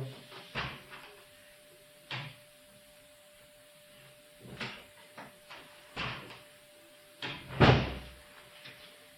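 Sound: door opened and closed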